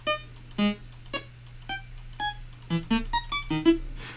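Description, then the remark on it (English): A quick series of short synthesized menu-select blips and beeps made with the sfxr sound effect program, each a brief bright electronic tone, fired off in an uneven rhythm over a faint steady hum. “And here's some kind of menu select and blip noises.”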